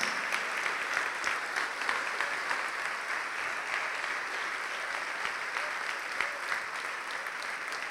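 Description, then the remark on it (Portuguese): An audience applauding for the Lord Jesus, with dense, steady clapping of many hands that holds at an even, fairly loud level for the whole stretch, sharp individual claps popping out of the wash. No one speaks. “Vamos aplaudir ao Senhor Jesus por cada filho pródigo, por cada filha pródiga que está chegando.”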